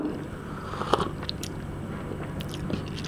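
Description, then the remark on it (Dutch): Slurping of hot black coffee: a few short, wet, airy sips drawn in through the lips, with quiet mouth noises between them and no talking. “In mijn leven, dan moet ik zo wat slurpen ah, misschien. Voor de radio is dat ook goed, slurpen.”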